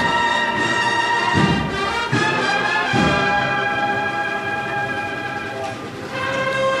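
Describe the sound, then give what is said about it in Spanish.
A brass band plays a slow, sustained processional march in the Plaza de la Campana, accompanying the slow turning of a procession float bearing a Christ figure; full chords held steadily while deep drum beats thud underneath at a measured pace, loud and continuous throughout. “Suena la marcha Azotes.”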